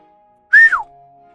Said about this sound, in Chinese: 长耳兔说着，吹口哨，叫来了池塘里的青蛙。